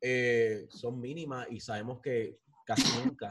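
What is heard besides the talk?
sneeze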